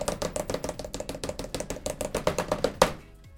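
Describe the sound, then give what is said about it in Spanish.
A rapid, steady series of hand taps on a hard desk surface, growing slightly louder for about three seconds and ending with one sharper final hit, like an improvised drum roll. “Listo. El redoble.”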